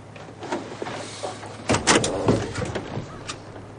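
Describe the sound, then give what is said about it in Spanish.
A van's sliding door rolls open with a mechanical rumble and clunk, loudest in a burst midway, without any voices. “Burke abre la puerta de la furgoneta.”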